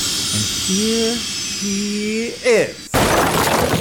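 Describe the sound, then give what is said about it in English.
A high mechanical whine hums steadily, then sweeps sharply upward before a loud, sudden roaring rush of rocket-propelled jet boosters bursts in and carries on. “I used my rocket propelled jet boosters to get here as quickly as I”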